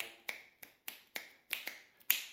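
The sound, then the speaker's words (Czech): Crisp finger snaps against the skin head of a tombak drum, a basic playing technique, about eight sharp clicks in an uneven, quickening rhythm, some landing in quick pairs. Moderately loud, with a brief ringing tail after each, no voices. “Jedna třeba z základních technik je, že vlastně luská třeba prstama o tu blánu,”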